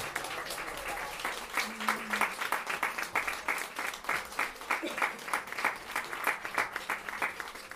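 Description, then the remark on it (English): A crowd on its feet applauds a chaplain steadily for several seconds, many hands clapping in a dense, crackling wash with a few louder individual claps standing out, and no voices heard. “Can everybody please like get to your feet and, and let's give her let's give her a like fringe round of applause.”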